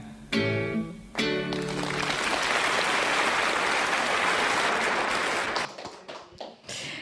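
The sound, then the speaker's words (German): Dense audience applause swells up and holds steady, a broad wash of many hands clapping, after a brief sung or sustained musical ending, then thins into scattered claps before the end, at a live Sunday-morning broadcast from the Stadtbibliothek Aarau. “Applaus”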